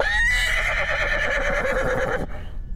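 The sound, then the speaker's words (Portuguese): A horse neighs loudly, one long shrill whinny with a quavering, vibrating pitch that holds for about two seconds before cutting off abruptly. “Ao cruzar dos olhares, o cavalo relinchou alto e ela correu.”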